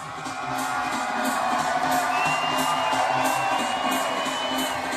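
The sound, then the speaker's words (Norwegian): A large outdoor concert crowd in Tøyenparken, packed in front of the amphitheatre stage, roars and cheers continuously, with whoops and shouts rising from the dense wash of voices, steady and loud throughout. “Folk samler seg som sild i tønne foran … og stemmeprakten hennes bærer over hele Tøyenparken”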